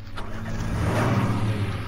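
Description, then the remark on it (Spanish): A pickup truck's engine rumbles low and steady, swelling slightly louder as the vehicle rolls up at a garbage dump and stops with its headlights on, with no voices over it. “La camioneta se detiene, alumbrándolos con los faros.”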